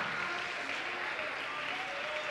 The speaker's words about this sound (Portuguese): Vamos aplaudir ao Senhor Jesus por cada vida que está chegando, venha. Venha, venha, aplaude mais. Venha, venha.